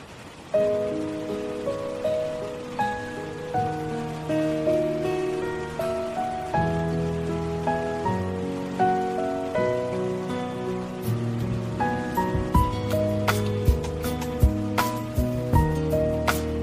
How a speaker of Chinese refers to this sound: 天又下雨了，你听，那雨声在滴答滴答作响，它轻打着玻璃，也敲击着我的心房。